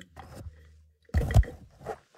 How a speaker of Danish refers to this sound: Hov, se, der kom jeg til at faktisk banke bunden af glasset ned i, Nå, jeg troede, i mikrofonen jeg, troede, her.